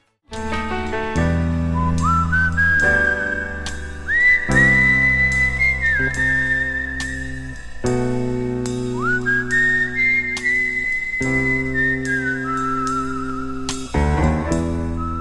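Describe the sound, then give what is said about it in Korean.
A whistled melody glides and sustains over a steady band accompaniment, the opening of a 1982 Korean pop hit, with sliding high notes and held tones across about fifteen seconds without any singing. “경기도 양평의 수은주가 영하 32도 6분까지 떨어졌던 해, 그러니까 1982년의 히트곡입니다. 이 노래군요.”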